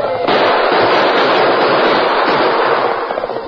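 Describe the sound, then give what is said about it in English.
A loud, sustained final burst of gunfire from Indians fleeing over the prairie, dense and crackling, with overlapping shots blurring into a continuous roar that holds steady for several seconds with no voices. “With a final burst of gunfire and with ear-splitting whoops, they fled over the prairie toward the shoulder of a wooded hill beyond.”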